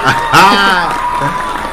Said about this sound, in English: We're not pushing those clap buttons. Those are real claps.